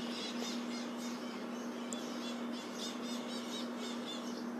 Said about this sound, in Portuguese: Aqui dá pra ver os pássaros, tem muito pássaro aqui. Maritaca, principalmente.